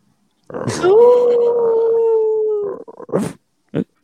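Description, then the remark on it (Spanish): A person imitates a wolf, letting out one long, loud, sustained howl that rises and then holds steady for about two seconds, followed by a few short breathy vocal sounds. “Pero es que ya se ha convertido en el lobo.”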